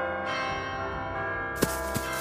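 A large church bell in a giant tower tolls with a rich, sustained ring full of overtones, two sharp strikes cutting through its resonant hum, echoing.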